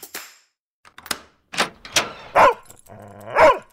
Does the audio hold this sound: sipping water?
no